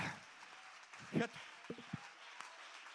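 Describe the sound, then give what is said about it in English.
An audience claps together in worship in a steady, dense wash of hand claps, with a voice calling out and a few sharper sounds rising briefly above the clapping. “Go ahead, clap your hands and worship the King right now.”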